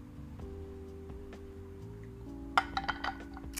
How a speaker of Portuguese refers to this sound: Portanto, vou aqui beber um golzito do meu chazito.